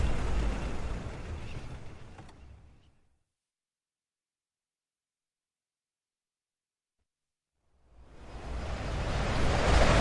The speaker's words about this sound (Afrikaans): Aha, daar sien drie branders al voor. Hel, maar die see is rof.